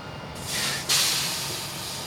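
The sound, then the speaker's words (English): A large Imperial Beverage beer delivery truck, carrying about 203 barrels of beer for the Winter Beer Festival, pulls up to make a delivery on a cold February day just after rain. Its air brakes let out two loud, sharp hisses over a low, steady engine rumble. “I'm waiting for a truck from Imperial Beverage to show up to make a delivery about eight hours before the start of the Winter Beer Festival.”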